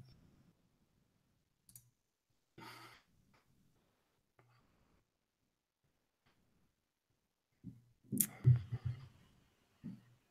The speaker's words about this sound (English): So one more, still a couple more typing. we'll wait just a minute.